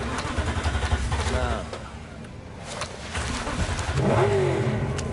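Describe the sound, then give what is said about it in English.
A car engine in a video game revs and roars with rising, sweeping pitch over a steady low rumble, loud, with brief lulls between surges and a strong rev near the end. “That sucks you don't get to keep this sweet ass car.”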